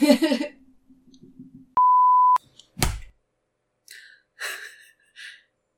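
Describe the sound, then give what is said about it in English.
A single steady electronic beep, a phone notification ding, rings out clearly for about half a second, followed by a sharp thump as the phone is smacked and some breathy vocal sounds. “I just smacked my phone because I got so mad at it for dinging at me.”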